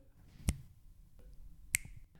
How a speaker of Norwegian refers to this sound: For er det én ting som jeg aldri tror kan bli digitalt, så er det lyden av et godt knips. Bare hør.